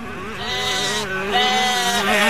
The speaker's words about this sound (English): Hold on, that's the sheep that got away earlier.